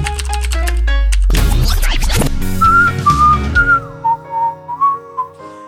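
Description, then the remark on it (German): A loud human whistle carries a short tune of bright, sliding notes, following a quick run of stepped musical tones and a harsh scratchy burst. No one speaks. “Wir pfeifen auf. Auf was pfeifen wir denn?”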